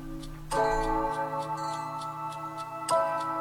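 A clock ticks in a steady, even rhythm, its crisp clicks running over sustained, resonant musical chords that swell in at the start and again near the end.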